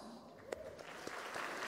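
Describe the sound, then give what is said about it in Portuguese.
A church audience applauds to welcome new members, a steady wash of many hands clapping with a few sharper claps standing out, building slightly louder toward the end. “Uma salva de palmas.”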